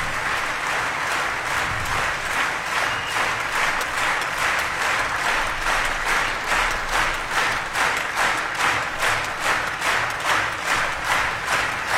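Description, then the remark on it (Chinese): Sustained audience applause at a concert fills the whole stretch, a dense wash of many hands clapping at a steady, lively pace with faint rhythmic pulses and no voices standing out. “他说：“我也好想拍手，和我们一起拍。”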